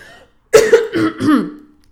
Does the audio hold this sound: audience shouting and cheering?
no